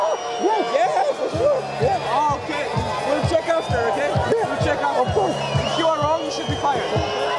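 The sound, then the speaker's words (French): A large tennis crowd in Barcelona jeers loudly and continuously at the Greek player after he was penalised for returning late from a toilet break, a dense mass of shouting and booing voices with sustained high whistles running through it for the whole stretch. “Et vous l'entendez, il ne s'est pas fait que des amis à Barcelone.”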